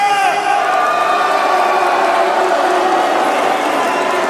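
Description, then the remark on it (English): A loud crowd cheers and applauds an entrance without pause, a dense wall of clapping mixed with shouts, whoops and excited voices, sustained at full volume throughout. “Y'all make some noise for Swag!”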